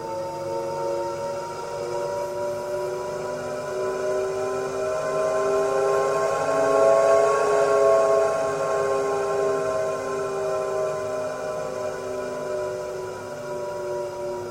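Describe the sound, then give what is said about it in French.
A sustained, synthetic tonal drone made of stacked harmonic lines, swelling slightly in the middle and easing off: one of three designed warning sound concepts for an electric vehicle, meant to signal its presence and approach, heard alone with no voices. “qui a abouti à trois, euh, trois concepts de son. Euh, donc là, c'en était un, je vais faire écouter les deux autres.”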